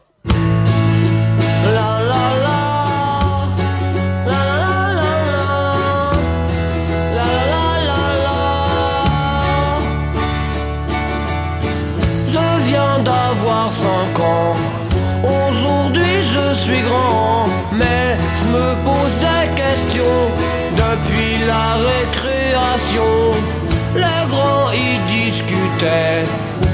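A loud, dense rock song fills the whole stretch, with driving bass that shifts every few seconds, bright crashing cymbals and what sounds like a singing voice over the band.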